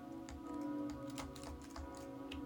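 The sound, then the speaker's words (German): Someone types text on the 8-dot Braille keyboard of a braille display: a string of soft, irregular, quiet key clicks over a steady low electrical hum with no talking. “Und ich schreibe jetzt einfach mal was.”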